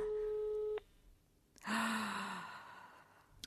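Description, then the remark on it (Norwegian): A steady electronic phone ringing tone sounds for under a second and cuts off, the call not answered, followed after a short pause by a loud, breathy sigh. “Kom igjen, Kristoffer. Ta telefonen,”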